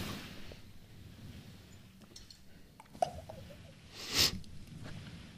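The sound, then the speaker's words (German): Wet mouth noises of someone chewing while eating, with soft smacks and squishes, a sharp click near the middle and a louder smacking burst toward the end, no talking. “Aber es also ist Essen so stört mich nicht, nur dieses, dieses Schmatzgeräusch.”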